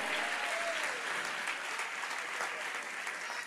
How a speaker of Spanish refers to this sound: Si usted va a aplaudir a Dios, aquí, dele el aplauso fuerte.